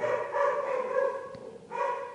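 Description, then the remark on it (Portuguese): A small pet dog barks close by in two drawn-out, tonal bursts separated by a brief pause, with a faint click between them and no one talking. “Esse é o Rasta aqui perto, meu cachorrinho.”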